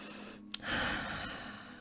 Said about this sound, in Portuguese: Um momento respiração. Muito profunda sério.